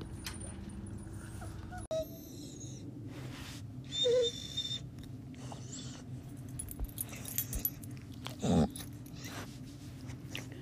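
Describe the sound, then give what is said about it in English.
A dog named Journey lets out a few soft, forlorn, despondent whimpers spaced several seconds apart, quiet, over a low background hum with faint rustling and a brief jangle. “Uh, the sounds that you were hearing are the despondent sounds of Journey, who seems to never be happy with anything.”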